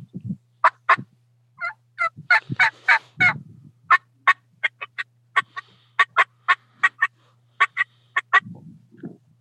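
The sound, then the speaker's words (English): A turkey call imitating an excited hen: a loud run of sharp, rapid clucks and cutts, about twenty notes in quick, uneven bursts, with no talking. “Just, but then when you hear a hen that's getting excited,”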